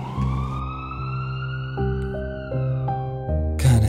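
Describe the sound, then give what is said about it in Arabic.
A steady, high siren tone rises slowly in pitch, sustained over a low, stepping drone that shifts between notes; loud throughout, ending with a brief noisy burst, no voices. “فقد فقدت الوعي ولا أعي إلا أني سمعت صوت دوي صفارات الإنذار”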